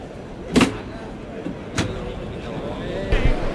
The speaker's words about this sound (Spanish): Ahí está el cerrojazo inicial de la feria de San Miguel. El primer dale de esta feria increíble que vamos a vivir en directo en Carrusel Taurino.